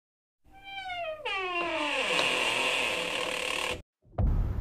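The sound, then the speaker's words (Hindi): A door swings open with a loud, drawn-out creak that slides downward in pitch, then a steady rasping grind. After a brief silence comes a sharp knock, with no voices. “तन्मय को जैसे ही दरवाजे की आवाज़ सुनाई दी वो एक झटके से फ़ोटोज़ को मिनिमाइज करके चेयर से उठकर पलटा कि कहीं कोई देख ना ले और उसके पलटते ही दरवाज़ा अपने आप बंद हो गया”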